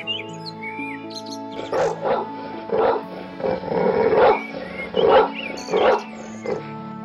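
A dog barks repeatedly in short, uneven bursts, about eight times over several seconds, loud, with faint birds chirping in the background.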